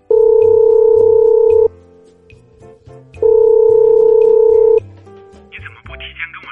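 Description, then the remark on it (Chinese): A telephone dial tone from a call placed just after getting off a plane in Chongqing sounds as two long, steady, mid-pitched buzzing tones, each lasting about a second and a half, separated by a pause, over a faint low background hum. “下了飞机，他给他打电话，原以为他会非常的惊喜，没想到他却带着责备的口气说。”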